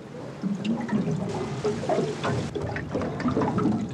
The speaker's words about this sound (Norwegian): Dette er lyden av en ubåt på 150 meters dyp.